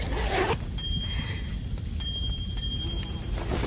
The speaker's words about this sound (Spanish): ¿Cuál es esta maravillosa campana? Es una pequeña campana de metal que simplemente puedes agitar cada vez que quieras escuchar un suave nininin.